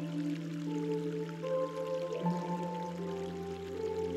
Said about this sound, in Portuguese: O som suave de uma lira grega e da água que corre nos introduz à sala seguinte.